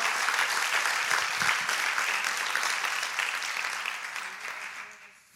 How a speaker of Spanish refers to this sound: Yo no sé si tú le quieres dar un fuerte aplauso al Señor.